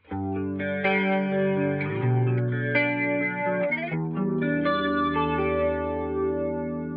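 An electric guitar played through an effects pedal, sustained chords shifting every second or so with a thick, warbling chorus-like shimmer and slight grit. Steady, fairly loud, with no voices.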